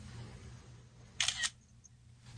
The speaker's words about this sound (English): when you push the the button to take a picture on your iPhone, how fast do you hear the click sound? Immediate, right?